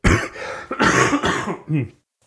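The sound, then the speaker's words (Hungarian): A loud fit of coughing: several harsh, rapid bursts run together with throat clearing, ending in one last cough before silence. “Jaj, hát elnézést hallgatok, nem tudom, hogy ezt mennyire fogom tudni kivágni, de hát ezzel nem tudom, most mit csinálni a köhögéssel.”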